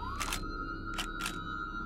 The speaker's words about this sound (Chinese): 二零一四年六月十一日，在新加坡的塞阿威路街道上，满满都是警察和记者。照相机的闪光灯和快门声此起彼落，现场的气氛非常紧张，就像是警匪电影里的现场一样。